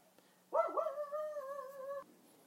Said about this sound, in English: Sorry about sorry about the dog. Sorry about the dog.